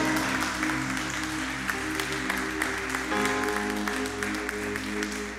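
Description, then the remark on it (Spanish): A church audience on its feet claps steadily and loudly for the Lord throughout, the dense applause blending with sustained keyboard or organ chords playing underneath. “Ponte sobre tus pies, dale un aplauso al Señor, iglesia.”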